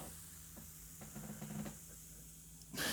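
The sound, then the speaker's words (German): A drink is poured into a glass with a soft, steady fizzing hiss, then a louder rushing splash near the end. No one speaks. “Aber dann gib mir, nee, ich, ich gebe dir das Glas, ich fülle jetzt mal so ein bisschen was hier rein.”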